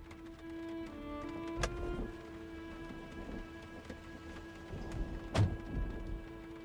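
Steady rain patters on a hard surface, a dense hiss of drops with a low engine-like hum beneath and a couple of sharper, louder splats standing out. No one speaks.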